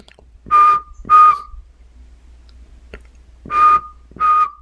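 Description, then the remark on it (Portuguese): A least pygmy owl gives two paired whistles, each a quick pair of clear hoots, separated by a pause of about two seconds. The calls are moderately loud against faint background hum. “Enquanto o caboré miudinho é esse som bicilábico, é esse assobio duplo.”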